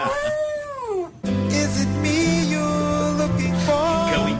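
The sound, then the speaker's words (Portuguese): A female dog lets out a single drawn-out howl that slides downward in pitch for about a second, then it cuts off abruptly as loud, busy music kicks in. “Aliás, cadela, cadela.”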